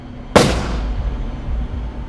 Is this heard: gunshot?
yes